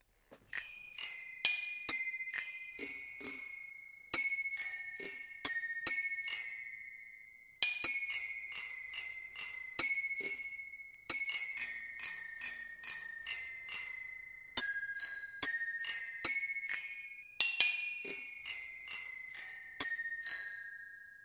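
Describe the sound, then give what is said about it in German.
Bicycle bells of a bicycle-bell orchestra ring out a song melody, one bright metallic ding after another with ringing tones, repeated in quick rhythmic phrases across about twenty seconds, clear with no talking. “Das Fahrradklingelorchester steht bereit und spielt nochmal ein Lied und ja, ihr sollt wieder erkennen, was sie da spielen.”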